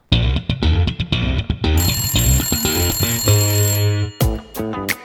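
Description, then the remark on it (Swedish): A phone rings out as a call is placed to an interviewee, with loud electronic ringing tones and bright melodic beeps repeating over about five seconds. No one talks. “Vi, vi tar och ringer upp eh,”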